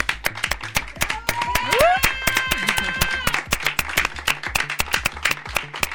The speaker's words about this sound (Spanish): Pues si les parece, compañeros, le damos un aplauso a Estrella Burgos.